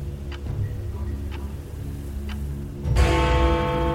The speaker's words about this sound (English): When 11 o'clock sounded, I almost leapt out of my skin. The clock pealed like a gong, each swell building on the last until the atrium seemed like it would tear and burst at its seams from the noise.